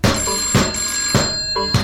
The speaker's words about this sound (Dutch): ook nog eens de telefoon?